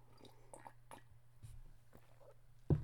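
Someone sips and slurps a hot oat milk drink with a little coffee and salt in it, with soft wet mouth clicks and small swallows, then one louder slurp at the end. Nobody speaks.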